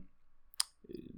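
A single sharp, bright pop of an old camera flashbulb firing, brief, followed by a low murmuring rumble.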